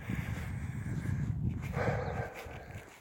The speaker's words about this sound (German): Ich, ich höre jetzt mal auf zu schnaufen hier. Reden und gehen ist immer ein bisschen anstrengend.